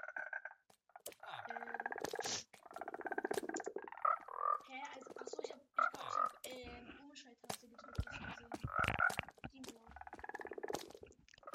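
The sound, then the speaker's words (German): A chorus of frogs croaking continuously in a video game, with overlapping throaty calls and brief higher chirps repeating at a steady, busy pace, fairly loud throughout. “ey, wie die Frösche laufen, ne?”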